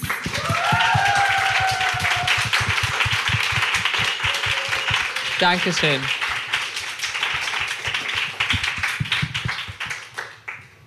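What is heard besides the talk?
audience applause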